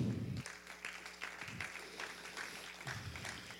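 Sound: audience applause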